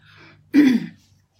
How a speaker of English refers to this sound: I have to clear my throat so excuse me